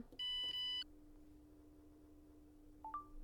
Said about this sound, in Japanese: 今炊飯の音聞こえましたかキラキラ星が流れたんですけど